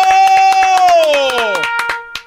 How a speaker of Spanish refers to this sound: ¿Sabe qué, maestro? Déjeme le aplaudo. ¡Bravo! ¡Bravo! ¡Bravo!